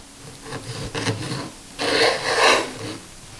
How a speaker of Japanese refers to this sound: 今朝は冬においしいブリと大根で作るブリ大根のいい音それではお聴きください